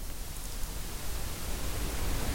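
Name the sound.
shower water running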